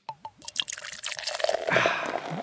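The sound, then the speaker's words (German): Beer glugs and splashes into a glass, starting with a few bubbly, dripping gulps and settling into a steady, fizzing pour that grows fuller toward the end. “Ah, nee, erst einschenken.”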